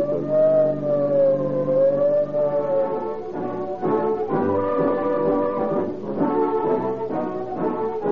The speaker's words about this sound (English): Whenever you hear the shriek of a siren, when police cars whiz